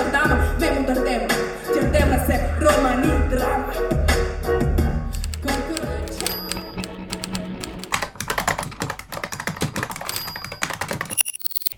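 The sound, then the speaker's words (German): Rapid typing on keys, a dense clatter of keystrokes that runs throughout, with a couple of brief high dings partway through and a low hum underneath. “Tippen, Tasten, Funken, Radio.”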